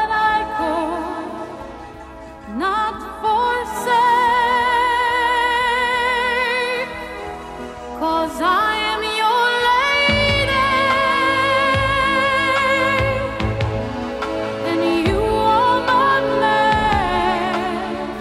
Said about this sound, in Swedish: 1984, … låter så här.